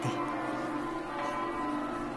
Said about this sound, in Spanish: Ay, estas campanas nos traen tantos recuerdos, buenos recuerdos del año 2017.